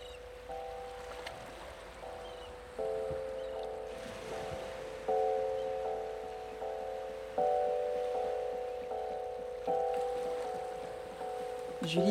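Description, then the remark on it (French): A sailboat's engine runs steadily with a low, droning hum, its tone holding constant while the loudness steps up in a few stages. Faint water and rustling sit underneath. “On la, on la laisse dormir en passerelle parce qu'elle aime bien le bruit du moteur, ça la berce.”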